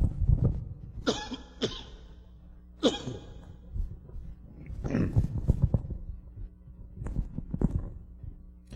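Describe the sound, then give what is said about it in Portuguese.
A person coughs and clears their throat several times, sharp rough bursts separated by short pauses, followed by a longer stretch of grumbling throat-clearing. “De um pigarro.”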